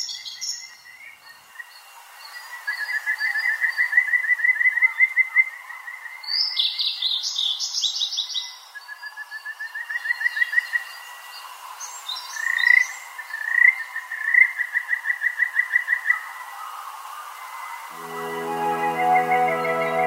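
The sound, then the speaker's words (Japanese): Kajika frogs and blue-and-white flycatchers call at Lake Chuzenji, a mountain lake in Oku-Nikko, Japan: the frogs in repeated trilling runs of rapid, high, fluttering notes that rise and fall, with bursts of flycatcher song mixed in and a low harmonic hum entering near the end. No talking. “ただオオルリとカジカガエルの鳴き合う声を聞いていると山の湖ののどかな音の風景に癒されます湖を渡る風が生き物たちの鳴き合う声を運んでいきます”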